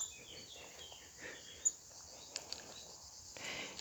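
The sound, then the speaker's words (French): Quiet open-air ambience in a place of wild nature with trees and vegetable gardens: a steady, high insect drone hangs in the background, with faint scattered bird chirps and a couple of brief soft clicks. “Alors aujourd'hui, je suis dans un lieu euh, magique, dans un lieu de pleine nature.”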